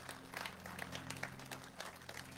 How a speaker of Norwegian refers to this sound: Kan vi ta oss og gi en klapp for de personene som tok den avgjørelsen? i dag.